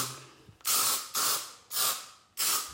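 Four quick, evenly spaced hissing bursts from a spray bottle as a person sprays themselves, each a short sharp spritz, with no talking.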